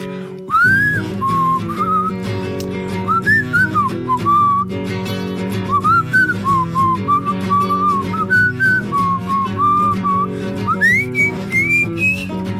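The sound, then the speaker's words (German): A New Year's Eve song whistled as a clear, bright melody with gliding, wavering notes, carried over a steady instrumental accompaniment with a low rhythmic backing throughout. No one speaks. “Das ist auch eine gepfiffene Version.”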